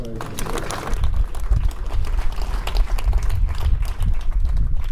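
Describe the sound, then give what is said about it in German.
An audience at an Expo 2023 event breaks into steady applause, a dense crackle of many hands clapping that swells after the first second and stays fairly loud and even until the end, with a faint voice briefly at the start. “Also vielleicht auch da noch einen kurzen Applaus.”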